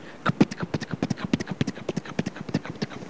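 Rapid horse hooves clatter in a quick, steady galloping rhythm as a horse is driven quickly, many sharp clip-clop strikes, fairly loud, with no voices over them.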